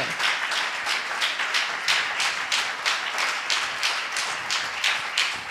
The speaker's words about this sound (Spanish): Ese aplauso para Dios en esta mañana.